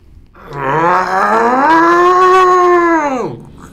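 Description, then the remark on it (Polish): A single drawn-out, anguished cry from a human voice, rising sharply in pitch, holding loud and strained for about three seconds, then sliding down and cutting off, like someone imitating a scream. “ale czujesz, że jesteś cały spocony i kończy się to tym, że w środku krzy słyszysz krzyk.”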